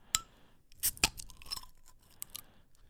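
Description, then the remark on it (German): Crinkling and tearing of the gold foil paper on a Rothaus beer bottle as it is opened, with a few sharp crackles and clinks in quick bursts, then quieter rustling; no one speaks. “So, ich würde das jetzt einfach mal direkt aufmachen”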